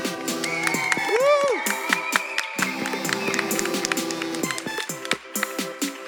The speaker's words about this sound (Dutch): nu gaan we klappen